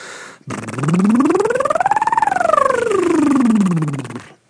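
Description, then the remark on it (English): A single voice does a vocal siren exercise, starting on the low end, going as high as it can and coming back down, with a slightly buzzy, rough tone, steady for about four seconds. “And what you want to do is you kind of start on the low end and you go as high as you can go, and then you come back down, kind of like a siren.”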